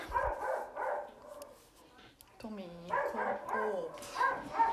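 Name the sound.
dog barking and whimpering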